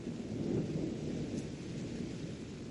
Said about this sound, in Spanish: Durante una tormenta oyó el estruendo de un relámpago que sonó con mucho más estrépito, diferente del ruido normal, pero no le prestó atención.